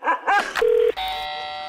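A two-tone doorbell chime, rung by a dog sitter, rings clearly, a steady pure note followed by a richer, sustained second tone, just after a couple of short, sharp dog-like yelps.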